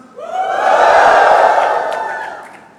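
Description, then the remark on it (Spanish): A church audience, asked to give a shout of praise, shouts together: a loud sustained group cry that swells for about a second, holds, then fades over nearly three seconds with scattered whoops on top. “A ver, echen un grito de alabanza.”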